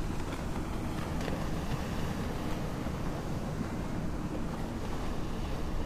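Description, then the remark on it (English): A boat's steady engine rumble carries over open water, blending with gusty wind and the wash of the sea, constant and fairly loud with no voices. “Because I can see a boat!”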